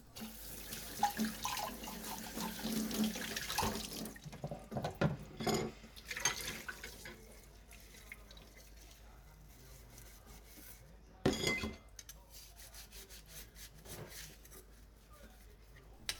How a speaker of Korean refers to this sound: 설거지 소리 들으면서 마무리하겠습니다.